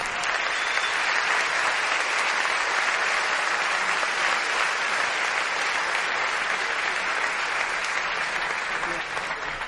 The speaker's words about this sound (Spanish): También pido un fuerte aplauso para ellos.